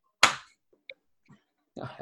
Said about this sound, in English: first time we meet, you've slapped